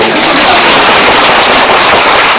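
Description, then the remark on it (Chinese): An audience at a talk on Buddhism bursts into steady applause at the speaker's request, many hands clapping in a dense, crackling wash that stays loud and even throughout, with no voices audible. “鼓掌一下嘛！”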